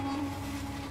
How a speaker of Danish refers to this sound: her, det er lyden af et af verdens længste tog.